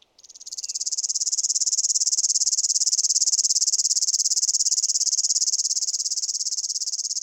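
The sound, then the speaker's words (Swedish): A male river warbler sings intensely from a small ditch bank in a meadow, a loud, continuous, insect-like reel of rapid high-pitched ticks. It starts abruptly and keeps going steadily for several seconds, with no voices. “Och där satt den igång och började sjunga intensivt. Och, och vi följde efter och jag spelade in den.”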